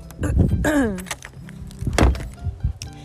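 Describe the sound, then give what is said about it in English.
A door to the outside swings with a brief descending squeak from its hinges, then shuts with a solid thump a second later, followed by faint rustling. “Oh, and there goes my door.”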